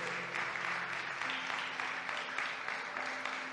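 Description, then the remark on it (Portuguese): A church audience applauds Christ together, a steady wash of many hands clapping with no pauses for several seconds, while a low sustained tone, likely an organ or keyboard, hums underneath. “¿Por não das um aplauso a Cristo, aquele que nos ajuda a poder caminhar em santidade.”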